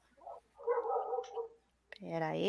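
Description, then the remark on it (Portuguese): A dog barks once, loud, with a drawn-out harmonic yelp at the end, picked up over a call participant's unmuted microphone, just after a stretch of people talking. “É, pessoal do cachorro, muta o microfone.”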